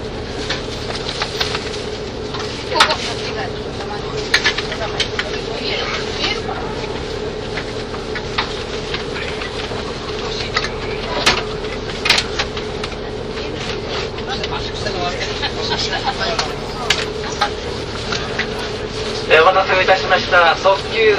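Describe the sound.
Steady rumble of a KiHa 85 series diesel limited express train, Hida No. 1 bound for Toyama, heard from inside between Hida-Kanayama and Hida-Furukawa, Japan, a continuous engine drone with rattling and clatter, briefly louder near the end, with faint voices in the background.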